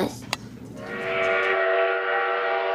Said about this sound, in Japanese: ガタンゴトンポッポーまもなく生活中の素敵な鉄道が参ります